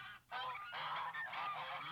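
Geese honking loudly, a brief honk, a short pause, then a continuous stretch of overlapping nasal calls from several birds with no voices.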